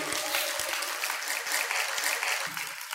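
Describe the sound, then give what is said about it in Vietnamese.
An audience at a talk about opening a business applauds loudly, many hands clapping together in a dense, continuous roar that holds for the full few seconds, with a few sharper individual claps standing out. “tôi định vào Ico Kem tôi mới chia sẻ thôi nhưng mà hôm nay có nhiều anh chị vỗ tay to quá cho nên tôi lại chia sẻ à, cảm ơn các anh chị”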